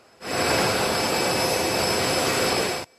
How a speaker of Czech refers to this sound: Letiště u Tel Avivu, pouhých 50 kilometrů od odpalovacích zařízení raket v Gaze, přistává letadlo s americkým prezidentem.